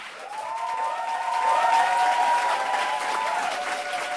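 A crowd claps steadily for about four seconds to welcome an interview guest onto a program, a dense wash of hand claps that swells slightly midway, with a few faint whistles or cheers rising above it.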